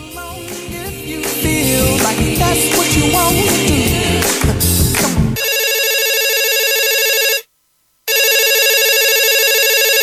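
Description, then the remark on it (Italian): A telephone rings loudly, a steady electronic tone that breaks for a brief pause and then resumes, after a few seconds of busy music. “Pronto chi è?”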